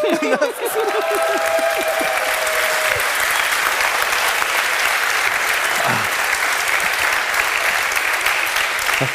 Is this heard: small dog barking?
no